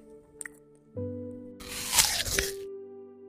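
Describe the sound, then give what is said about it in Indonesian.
A crisp, juicy crunch of someone chewing an apple, lasting about a second, fairly loud over soft, sustained background music. “sambil mengunyah apelnya.”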